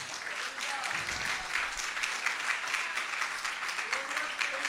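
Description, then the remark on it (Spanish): An audience breaks into loud, sustained applause, a dense wash of clapping holding steady throughout with faint voices mixed in underneath. “Denle el aplauso fuerte al que vive si lo cree.”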